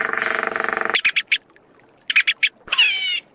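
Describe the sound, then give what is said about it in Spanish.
Birds chirp in short bursts in a dim forest at hot midday, a raspy call first, then two quick groups of four bright chirps separated by a pause, ending with a rising, warbling whistle. Fairly loud, no voices. “Los pájaros piaban intermitentemente.”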